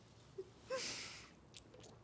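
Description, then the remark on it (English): A single sip from a drink taken near the microphone: a soft lip smack, then a brief wet slurp with airy hiss lasting about half a second, followed by faint mouth clicks. No one speaks. “I just took a sip of uh, a drink, and I know that was picked up on the mic.”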